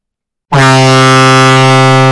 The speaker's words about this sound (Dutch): Ze schrok wakker van een toeterende schip dat net voorbij voer. Het kasteel lag namelijk heel dicht bij de haven.